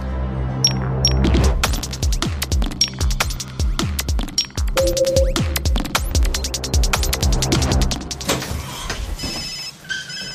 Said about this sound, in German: da klingelt ein Handy kein Problem.